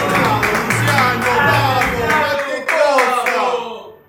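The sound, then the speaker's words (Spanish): A crowd bursts into loud applause with shouts, cheers and howls, dense clapping filling the air for a few seconds before fading out at the end. “La gente explotó. Aplausos, gritos, alaridos.”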